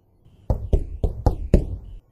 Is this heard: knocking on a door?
yes